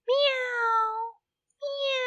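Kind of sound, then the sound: animal, cat meowing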